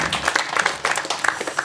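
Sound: audience applause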